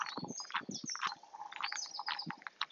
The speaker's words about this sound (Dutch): En het is misschien heel fijn om naast het contact met je lichaam ook gewaar te blijven welke geluiden er nog meer allemaal om jou heen hoorbaar zijn. Vogels hier in de natuur waar ik wandel.